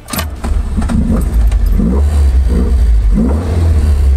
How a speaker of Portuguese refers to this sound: E um dos momentos mais sensacionais de um Alfa Romeo é esse. Você sente esse cheiro do estofamento, de tudo couro, de, do, na madeira do volante, tudo isso e deixa o motor dar uma giradinha.